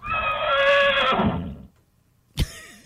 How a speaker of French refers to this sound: Ça, c'est clairement un cheval, là. C'est un zèbre. non, c'est un cheval.